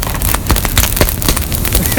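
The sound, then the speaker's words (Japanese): A campfire crackles, sharp irregular pops and snaps breaking through a steady rushing hiss, with several louder cracks spaced unevenly across the moment. “聞こえてんのか入ってたでパチパチこれ入ってるのか聞こえてるんですか”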